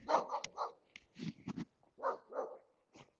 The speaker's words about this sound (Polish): No, psy szczekają dookoła, trzeba się pilnować. Niektórzy na ogrodzeniu. Uwaga, pies, ale bramka otwarta.